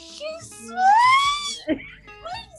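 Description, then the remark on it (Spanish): A person imitates a horse's neigh with a high, wavering, whinny-like cry that swells loudly in the middle, surrounded by shorter vocal sounds. “Sí, güey, así como caballo relinche.”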